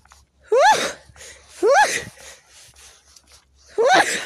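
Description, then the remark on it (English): Three loud sneezes in a row, each a sharp rising intake bursting into a noisy blast, with brief quiet breathing between the second and third. “Um, it's like, hang on, I've got to sneeze”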